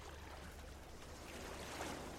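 Sea water sloshes and splashes steadily around a small rowboat on a shallow sea as someone scoops up seawater and splashes it at the rower, a soft continuous wash of water that swells slightly toward the end, with no voices.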